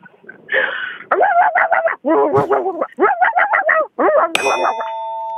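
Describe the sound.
A caller on a radio phone-in line imitates a dog barking, with quick runs of high, yappy barks in several bursts. A bright bell-like ding rings out at the end and lingers.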